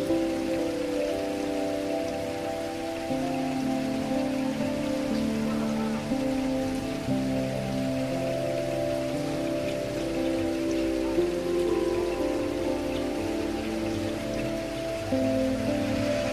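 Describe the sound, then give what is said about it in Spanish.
Steady rain patters continuously for the whole stretch, a dense even hiss with no pauses, layered over sustained low musical tones that shift slowly. Nobody speaks. “Me recuesto como si fuera una estrella de mar y observo el cielo mientras las gotas de lluvia caen sobre mí, camuflan mis lágrimas, pero no esconden mi dolor.”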